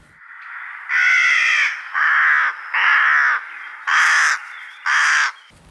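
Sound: rook calling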